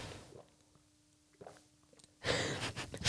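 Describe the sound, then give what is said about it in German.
A few soft swallowing gulps from someone drinking water, followed by a loud, breathy gasp of air once the drinking stops. “mir ist es je, bei jedem Schluck in der Lernphase so unangenehm gesehen, das Wasser trinken, weil ich aus ich trinke so laut.”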